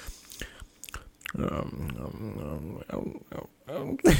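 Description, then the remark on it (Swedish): A voice mimics someone chewing and savoring cheap Eldorado chocolate with wet, smacking mouth sounds and a drawn-out, pleased humming murmur, with a few short bursts of mouth noise around it. “Alltså, typ, typ, hans lilla njutningsstund när han tar, tar typ så här billig ja. Eh, eldorado-choklad.”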